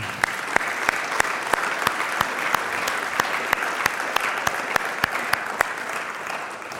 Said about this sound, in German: Der Applaus galt nochmal allen Müttern hier im Raum, die das so leben.